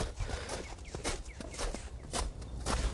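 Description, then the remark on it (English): Footsteps of a woman walking her dog, which looks like a spaniel, on a sunny day over slippery ground: a run of soft, crunchy steps at an uneven pace over a steady outdoor hiss, with no talking. “Now, ah, here comes a lady walking her dog. Looks like a spaniel.”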